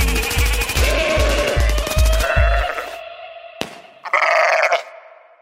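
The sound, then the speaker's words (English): Goat bleats come in a rapid, stuttering run of pulses for a few seconds, then a sharp click and one last short, loud bleat. No one speaks. “But before we get into it, I just want to quickly derail the show with with some right. rapid fire goats.”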